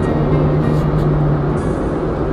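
Steady low road rumble inside a moving car, a constant engine drone with a faint hum running underneath, loud and unbroken, with no voices.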